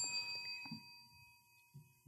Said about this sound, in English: That bell really echoes down here.